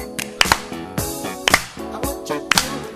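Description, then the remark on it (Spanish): Sharp claps in quick pairs land about once a second, accompanying a song played as a show begins, over its sustained melodic tones, keeping a steady rhythm along with the music. “Dale, dale con un aplauso, acompañámosla, así.”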